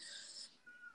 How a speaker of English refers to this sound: Also, I'm sorry, guys, if you can hear my cat meowing. He's at the door. He's very needy.